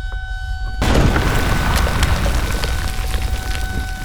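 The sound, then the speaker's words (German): After a brief low hum, a sudden, powerful explosion bursts from a fireball in the center of a brick building in the midday summer heat, lifting the roof; then a heavy rumbling roar with crackling, pattering debris raining down as the building comes apart. “Ein Feuerball breitete sich im Zentrum des Backsteingebäudes aus.”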